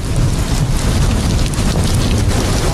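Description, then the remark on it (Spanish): Heavy rain pours down steadily with a deep, continuous low rumble of thunder underneath, loud throughout, with no voices. “y se escuchaba la lluvia y los truenos.”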